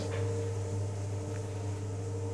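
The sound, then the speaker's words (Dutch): A kneading machine works dry bread dough at the start of kneading, with a steady, droning motor hum and a faint, even churning texture, continuous throughout, with no voices. “Zo klinkt het wat droger.”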